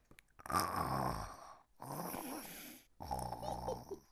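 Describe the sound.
During an English storybook lesson, a child's voice imitates a snoring granny in three drawn-out, rasping bursts separated by short pauses, each a throaty, buzzing snore of moderate loudness.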